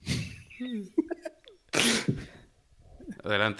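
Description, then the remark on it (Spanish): A single sharp sneeze bursts out, loud and breathy, between stretches of conversation and a bit of laughter from other people. “Jesús.”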